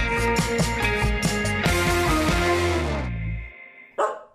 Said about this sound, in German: So, hallo und herzlich willkommen in der Hundetagesstätte. Wie ihr seht, wie ihr seht, ganz viele Hunde hier dabei. Und es ist mal wieder schönes Wetter. Hier ist viel los, wird viel gebellt und viel getobt und viel gespielt.